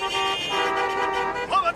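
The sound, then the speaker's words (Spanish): A sustained car horn blares loud for over a second in a New York traffic jam, with other horns and a shouting voice breaking in near the end. “Los atascos de tráfico de la antigua Nueva York eran un foro público para el libre intercambio de opiniones.”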